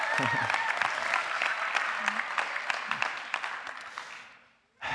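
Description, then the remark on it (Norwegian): An audience at a church gathering claps for the speaker in a dense, crackling burst that holds for several seconds, then thins out and fades to near silence before a sudden loud sound cuts in at the end. “Dere må ikke klappe for meg, men hvis dere klapper, så må dere gjøre det skikkelig.”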